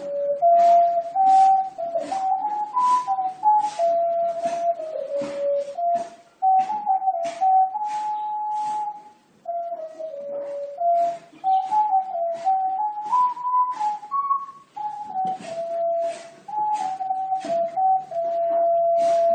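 A soft, pure-toned ocarina plays a slow, flowing melody of mid-pitched notes indoors in Wuzhen, China, steady throughout, while sharp knocking or banging sounds from renovation work outside repeat at irregular intervals beneath it.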